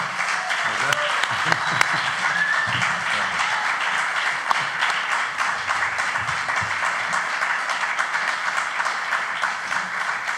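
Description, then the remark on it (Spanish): An audience at the Teatro del Barrio applauds to welcome actors Gonzalo de Castro and Tristán Ulloa. The clapping is steady for about ten seconds, a dense, even wash of many hands clapping at a constant loud level, with a few voices faintly mixed in beneath. “Público lunero recibimos con un aplauso tremendo al gran Gonzalo de Castro y Tristán Ulloa.”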